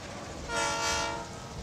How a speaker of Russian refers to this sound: Очередная вспышка молнии осветила приближающийся на полной скорости локомотив.